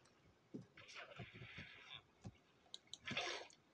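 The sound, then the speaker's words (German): Video game water pouring out in a soft, swishing rush, followed by a few clicks and a second brief splashy burst. Fairly quiet, with no one talking. “Jetzt kippen wir so ihr Wasser hin.”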